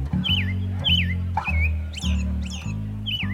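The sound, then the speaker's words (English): An American robin sings before sunrise in a U.S. city, a quick series of clear, whistled phrases, about six in a row, over a loud, steady low hum of city noise. “In cities in the U.S., some American robins put on a show long before sunrise”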